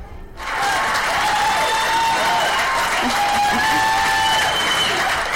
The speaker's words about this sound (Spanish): ¿qué tal unos aplausos para ellos?